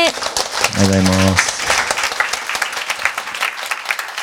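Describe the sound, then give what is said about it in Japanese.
A large audience applauds steadily at the close of Daito Manabe's Mirai Jugyo lecture, dense overlapping clapping filling the whole stretch at an even, fairly loud level, with a brief low tonal sound rising above it early on. “以上をもちまして未来授業真鍋大斗さんの講義を終了させていただきます真鍋大斗さんでした皆様今一度大きな拍手をお送りくださいませ”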